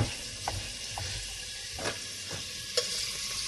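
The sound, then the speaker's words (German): Bacon sizzles steadily in hot margarine, a dense crackling hiss with a few sharper pops and stirring clicks scattered through it, and no one talking. “Margarine ist nur zum Anschwitzen. Dann tue ich den Speck da rein und schneide die Zwiebeln in Würfel.”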